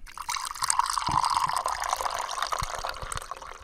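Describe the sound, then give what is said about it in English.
Coffee pours steadily into a glass for a few seconds, a continuous splashing trickle with a rising, filling tone and a few small clinks. “well, I'm gonna pour out a little coffee into one glass.”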